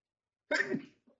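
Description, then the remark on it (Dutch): A single sharp sneeze bursts out suddenly after silence, broad and forceful, then trails off quickly, followed by a faint breathy sound. “Oh. gezondheid. gezondheid.”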